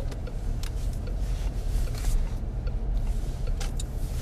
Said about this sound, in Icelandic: Við erum komin inn að fyrir utan smára liðning og erum, erum að fara að leggja bílnum.